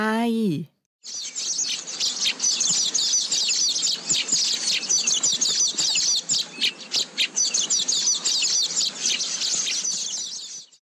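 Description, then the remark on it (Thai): A dense chorus of many weaver birds chirping and twittering at once, high-pitched and busy, continuing loudly for about ten seconds after a brief voice at the start. “โอ้โห นกเหรอครับที่เราจะพูดถึงกันเมื่อสักครู่นี้คือนกใช่ไหมที่ว่าเป็นทั้งสถาปนิก เป็นทั้งวิศวกรแล้วก็เป็นช่างลงมือสร้างเองด้วยเนี่ยใช่แล้วค่ะ”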